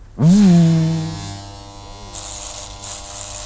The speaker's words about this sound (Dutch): De dierenarts pakt het scheerapparaat en begint het lammetje te scheren.